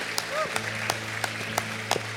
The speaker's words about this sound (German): Lass uns hier jetzt mal einen riesigen, großartigen Applaus geben.